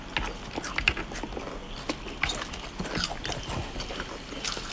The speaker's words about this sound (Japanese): これ聞いてるだけでこのねあのポテチを食べながら炭酸を飲む人というねなんともズボラなねジャンキーな生活をしている音がこれだけで